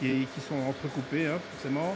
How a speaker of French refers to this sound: Euh, et le bruit que vous entendez, le bruit de fond, en fait, c'est un mélangeur. D'accord. Parce qu'il faut savoir qu'il faut minimum un mélange de 4 heures par jour